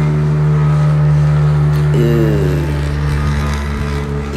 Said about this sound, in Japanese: 急いでるバイクがいますね